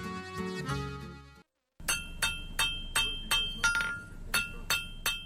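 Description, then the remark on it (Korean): A blacksmith's hammer pounds metal in a steady rhythm at a smithy in Cheonho-dong, Seoul, where this sound has been heard since 1937: about ten ringing clangs roughly twice a second, following a short burst of music and a moment of silence. “올해로 79년째 서울 천호동에서 이 소리가 들리기 시작한 게 1937년입니다.”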